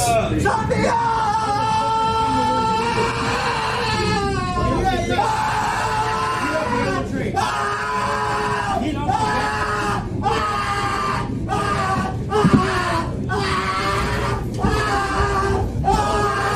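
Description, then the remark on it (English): A man screams and yells repeatedly in long, strained bursts, loud, while another rider kicks him down the aisle of a bus or train, over a steady low rumble like a moving train carriage, with other voices faintly in the background. “Well, one of the riders is now uh, sort of kicking the guy who's screaming down the aisle, trying to get him off of the bus or train or whatever.”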